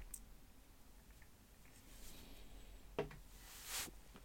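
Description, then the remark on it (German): A quiet sip of a carbonated drink: a faint click, then a brief hissing slurp near the end, with no talking. “Äh, tut mir leid, ich will irgendwie mal was trinken, damit irgendwie wieder so ein gewisse, gewisses Komfortbewusstsein wieder äh, dazukommt.”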